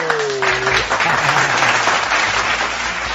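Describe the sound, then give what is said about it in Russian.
A burst of dense applause, many hands clapping in a steady, loud wash that holds evenly for a few seconds, with a brief whistle-like tone at the start. “Ну, аплодисменты мне!”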